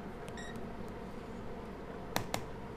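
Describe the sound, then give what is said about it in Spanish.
A battery connected via Bluetooth powers on with a brief, high electronic beep near the start over a steady low hiss, followed a moment later by two sharp clicks close together. “Encendió su computadora y después de teclear sin sentido, se conectó vía Bluetooth a la batería, que lanzó un pitido al encenderse.”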